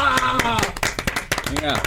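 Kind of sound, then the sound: crowd, studio applause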